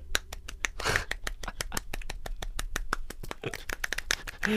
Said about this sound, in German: Gibt es eine Sache an dir, die nicht normal ist? Ja, ich kann mit einer Hand klatschen.